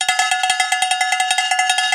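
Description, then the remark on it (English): A cowbell clanks in a fast, steady rhythm, roughly sixteen bright metallic hits in two seconds, each ringing with a tinny, sustained tone. No one speaks over it. “And with cows, you know it has.”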